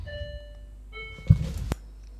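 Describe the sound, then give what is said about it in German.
A doorbell chimes two tones as the postman rings, the second lower and lingering, followed by a couple of dull thumps and a sharp knock, moderately loud. “Ja, wir mussten gerade mal kurz unterbrechen, weil wir noch, weil der Postbote geklingelt hat.”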